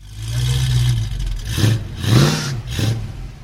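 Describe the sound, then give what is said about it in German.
A Ford Mustang engine revs hard several times at a Mustang fan meeting in Europe marking the model's 50th anniversary, each burst rising in pitch over a steady low rumble, loud with no one speaking. “Der Mustang ist einfach Sound und Wind in den Haaren, Route 66, Freiheit, American Way of Life.”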